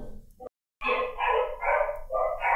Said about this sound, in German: Ah, der eskaliert nochmal, der Hund.